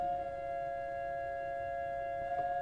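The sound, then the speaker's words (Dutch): Two steady tones sound together as a musical third, played as a nicer-sounding third than the interval of a cuckoo's call; a sustained, even electronic-sounding chord held for a few seconds with no speech. “Dit zou een mooiere terts zijn.”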